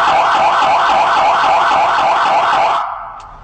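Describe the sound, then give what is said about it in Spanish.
A loud emergency vehicle siren tone, used at crossings and intersections to warn drivers that the vehicle is passing, warbling rapidly up and down in a steady, fast oscillating tone, sounding alone for about three seconds before cutting off. “Este tono siguiente es el que utilizamos en cruceros o intersecciones. Esto es para avisar a los conductores que vamos a pasar.”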